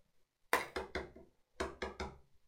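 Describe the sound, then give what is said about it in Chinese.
Loud, heavy knocking on a door in two quick bursts, four thuds, a short pause, then three more, each strike booming and fading fast, with no voices. “砰砰砰砰砰砰！”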